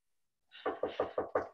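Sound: knocking on a door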